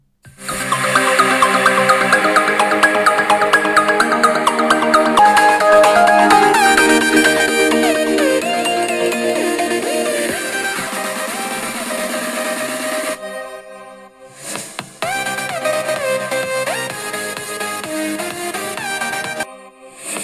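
An electronic dance track plays from a Google smart speaker via Spotify, bright layered synth melodies over a steady beat, fairly loud, briefly dropping out about two-thirds through before resuming, with no talking.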